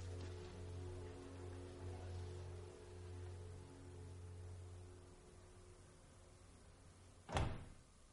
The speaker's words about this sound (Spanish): Cierran la puerta.